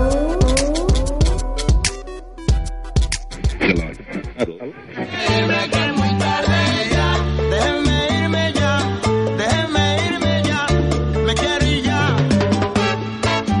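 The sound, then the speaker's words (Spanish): Cat-like meows sound over a busy, bright musical backing, with sharp percussive hits early on before a steady, dense arrangement takes over and continues loudly throughout. “La gatita dice miau.”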